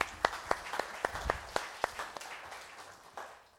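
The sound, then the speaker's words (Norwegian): A short round of applause from a small group: roughly a dozen distinct claps at a fairly even pace, sharp and bright, fading out after a few seconds. No one speaks. “Ja, vi må klappe.”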